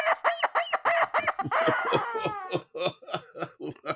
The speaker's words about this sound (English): And the rubber chicken says.